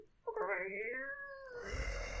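A cat inside a box lets out one long, drawn-out meow that rises and then falls, fairly loud, ending in a breathy rustle with no talking.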